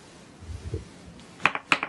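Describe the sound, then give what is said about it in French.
Dice are rolled onto a hard surface for an attack in a game, rattling and clattering: a quick cluster of sharp clicks in two short bursts near the end, following a soft, low shuffling rumble. “allons-y, roule tes dés.”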